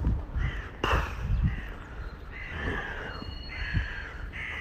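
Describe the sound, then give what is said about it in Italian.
Harsh, raspy bird calls repeat in a steady series in the morning on a street with few cars, loud, with a sharp knock near the start and low outdoor rumble beneath. “sentite che bello mamma oh mia si respira ciao buongiorno uccelli meraviglia eh,”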